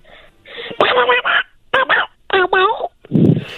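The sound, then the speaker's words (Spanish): A person imitates a duckling's quack like Donald Duck: a string of loud, raspy, nasal squawks in short uneven bursts separated by brief pauses, ending with a breathier, lower gasp. “A ver, haz el, haz el ruido de un patito.”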